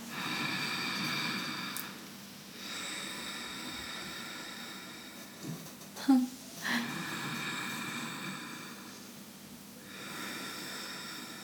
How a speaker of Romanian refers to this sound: se folosește mult în vinyasa yoga un exercițiu de respirație care se cheamă Ujjayi